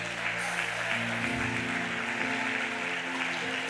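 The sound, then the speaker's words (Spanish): A church audience claps steadily and loudly for Jesus during a worship service, a dense continuous wash of applause over sustained low keyboard or organ tones that shift pitch partway through. “Den un aplauso fuerte a Jesús.”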